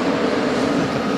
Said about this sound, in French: Oui, mais c'est le TGV qui passe.